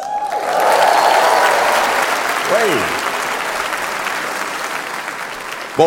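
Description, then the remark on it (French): Loud, sustained audience applause for the announcement that the speaker has obtained French nationality, a dense wash of clapping that holds steady for several seconds, with a few cheers and whoops rising out of it before it slowly begins to thin. “merci beaucoup pour cet applaudissement parce qu'honnêtement, c'est mérité, ok?”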